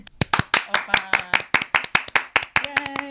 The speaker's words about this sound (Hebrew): כן, בואו אה, נמחא כפיים, בואו נמחא כפיים אמיתיות